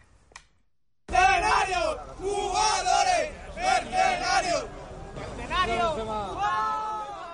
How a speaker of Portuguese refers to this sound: Para o Real Madrid, o derby acabou assim, aos gritos e sem festa. Os adeptos estão fartos de derrotas e perderam a paciência.